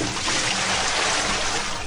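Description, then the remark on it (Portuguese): A bucket of cold water pours out in one steady, loud rush of splashing liquid lasting about two seconds, with no voices over it. “Então, amiga, esse balde de água fria que nós estamos jogando sobre você aqui é para você despertar e parar de olhar.”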